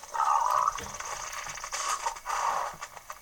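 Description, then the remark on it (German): A video-game pig grunts in a few rough, buzzing bursts, one near the start and another toward the end, moderately loud with no talking. “Hallo Schweinchen.”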